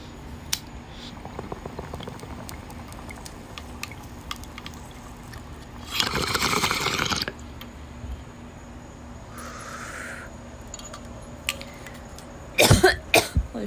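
A bong hit: a long burst of gurgling, bubbling water, then a softer airy hiss, followed by a couple of sharp, harsh coughs at the end. No one talks.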